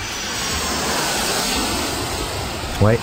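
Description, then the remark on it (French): A steady, broad roar of Boeing 747 jet airliner engines fills the whole recording, loud and sustained like a large jet passing or running up, with a brief voice cutting in right at the end. “C'est comme ça que le 747 est devenu une icône culturelle, et même presque un ingrédient de ce qu'on appelle, ou euh, qu'on appelait, le rêve américain.”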